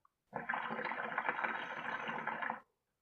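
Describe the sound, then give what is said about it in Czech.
A water pipe (hookah) bubbles steadily for about two seconds during one drawn inhale as it is smoked, a dense gurgling that starts and stops abruptly. A faint click comes just before it, and no one speaks. “jsem i tehdy u vymyšlení blogu kouřil dýmku.”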